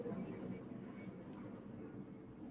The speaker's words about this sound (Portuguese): Hoje, você deve ter escutado aí da sua casa um avião passando aqui. Eu não moro em Moema, não, moro no Paraíso, mas eu não sei explicar exatamente